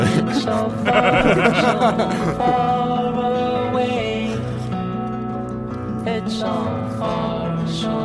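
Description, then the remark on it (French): A video game soundtrack song from Red Dead Redemption plays steadily and fairly loud, with layered sustained melodic lines and wavering, vibrato-like tones over a continuous instrumental bed, with no talking over it. “Allez, morceau suivant.”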